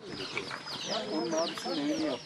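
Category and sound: bird, hen clucking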